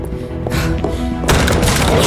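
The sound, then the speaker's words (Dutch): A beast batters the back door of an inn with heavy, booming thuds, first a few separate blows, then a loud, continuous barrage of crashing impacts with no voices. “Nee, een van die beesten probeert nu ook al deze deur te vernielen.”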